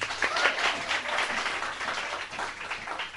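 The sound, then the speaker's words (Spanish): An audience claps steadily for a few seconds, a dense crackling wash of many hands at moderate volume that keeps an even level throughout, with no voices standing out. “Pero aplaudan bien.”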